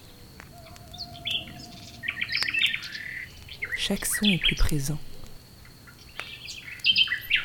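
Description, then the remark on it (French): Outdoor forest ambience at night, with several birds calling and chirping, including an owl hooting, and leaves rustling. Short tonal calls repeat irregularly over a soft background hiss, with wind in the distance, while a man speaks briefly over it. “le vent au loin, le bruissement des feuilles, le ululement du hibou.”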